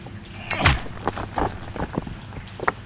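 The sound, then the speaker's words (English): Water trickles and splashes in uneven bursts as it seeps into a mine, with a louder gush early on and smaller spatters following over a low, rushing background. “There's quite a bit of water seeping in now.”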